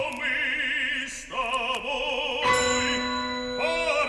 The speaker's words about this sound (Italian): Sentite il suono dei quattro pianoforti, le campane